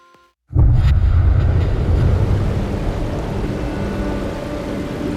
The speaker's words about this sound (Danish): Floden bulrer afsted med en voldsom kraft. Det er som om strømmen arigt prøver at skubbe de kolossale klippeblokke til side, sådan så den kan mase sig hurtigere frem.